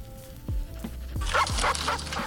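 A dog barks in a quick series of sharp woofs, growing louder and more insistent toward the end, with no voices present.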